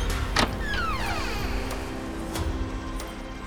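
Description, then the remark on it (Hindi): A bedroom door slowly creaks open by itself, a drawn-out squeaky groan that slides downward in pitch over a steady low rumble, with a couple of soft knocks and no voices. “तभी उसने महसूस किया कि गोल्डी के कमरे का दरवाज़ा अपने आप खुल गया”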